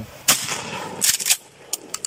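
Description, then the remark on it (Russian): An IZh-81 pump-action shotgun fires a loud, sharp blast with a rumbling tail, followed by a second burst of cracks and a few brief, crisp mechanical clacks. No one speaks. “Давай сейчас отстреляю.”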